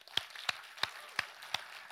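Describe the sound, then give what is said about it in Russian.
An audience applauds its musicians with steady, evenly spaced claps, five sharp hits in an even rhythm over a faint hissy background, with no voices. “и я не знаю, принято ли у вас, можно ли поблагодарить наших музыкантов, всех, которые участвовали, можно им подарить аплодисменты сейчас?”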